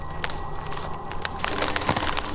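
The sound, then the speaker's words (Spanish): Dense wooden cracking and splintering, like a tree creaking and breaking, coming from inside a forest, with sharp snaps over a steady rumbling crunch that grows slightly louder toward the end; no voices. “El ruido es como si un árbol hubiese crujido, como si se hubiese caído un árbol.”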